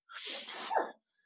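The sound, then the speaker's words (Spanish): A single forceful sneeze bursts out, a broad hissing rush that ends with a sharp falling snap, then silence. “Salud.”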